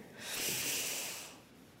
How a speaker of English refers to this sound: And we can do this. Let's inhale together.